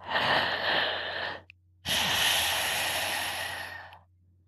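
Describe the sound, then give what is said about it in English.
Two long breaths of Ujjayi breathing pass through a constricted throat, each a steady hissing rush like ocean surf, separated by a brief pause. No one speaks. “It sounds like an ocean or Darth Vader.”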